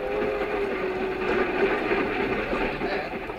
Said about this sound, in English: I used to ride the commuting train to my job in the city, and I got to know all the regular commuters who rode in the same smoking car.